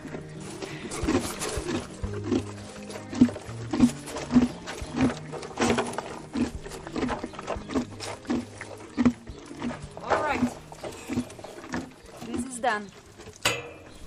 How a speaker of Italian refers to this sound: Sono le sette di sera. Il range è in un momento molto tranquillo, tutti i cavalli stanno ruminando.